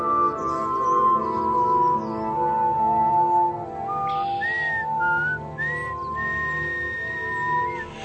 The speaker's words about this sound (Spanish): De chico alguien le dijo que silbando se iba el miedo, pero cuando Alejandro empezó a silbar, tuvo la impresión de que estaba acompañado y fue peor.